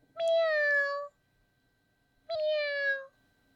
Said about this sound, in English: 喵喵。呃，cat。嗯，小猫啊